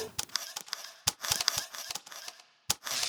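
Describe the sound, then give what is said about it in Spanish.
Camera shutter clicks snap out several times at uneven intervals, crisp, with a faint mechanical rustle and hiss filling the gaps between them. “La posición, encuadre de la cámara y el clic son determinados en un instante.”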